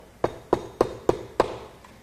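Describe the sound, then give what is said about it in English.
Five firm knocks on an apartment door in a steady, evenly spaced rhythm, each a solid thud with a short ring-out, clear with no voices. “So I was in my apartment, chilling, and I heard this knock on the door.”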